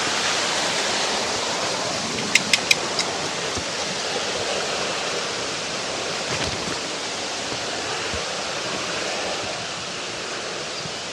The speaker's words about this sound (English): That was the waterfall.